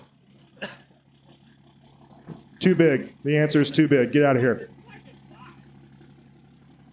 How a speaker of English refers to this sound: Mark, start the truck if it'll start. Gosh, that thing sounds good.